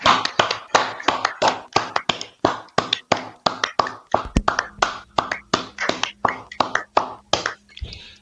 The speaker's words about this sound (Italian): applauso.